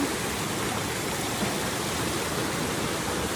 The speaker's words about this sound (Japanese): それでは滝のお水の温度をチェックしたいと思いますはいこちら落ちるのよ